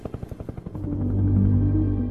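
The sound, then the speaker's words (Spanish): A Hiller helicopter's rotor thumps in a quick, steady rhythm, then swells into a loud, continuous low roar with a faint whine on top, as it flies to the area near Marquetalia and Río Chiquito in 1964. No one speaks. “El orden público para el año de 1964 se había agudizado y justamente el subteniente Guillermo Molina, que se encontraba en la población de Planadas, recibió la orden de volar en su helicóptero Hiller a la zona cercana de Marquetalia y Río Chiquito”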